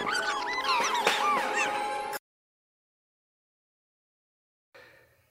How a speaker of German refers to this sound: Gekreische. Ich will das nachher bei den Ahorn auch machen, deswegen können wir es jetzt bei den Wichteln auch machen. So klingen Wichtel.